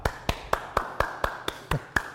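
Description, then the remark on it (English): Clapping to applaud God during a church sermon, in a quick, steady rhythm, about nine sharp claps a quarter-second apart, crisp and evenly spaced, with no voices over them. “Stand up and applaud God.”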